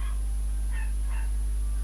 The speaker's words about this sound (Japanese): めっちゃ犬の声が聞こえる